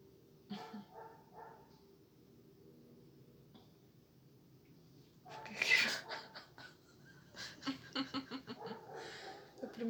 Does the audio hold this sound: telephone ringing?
no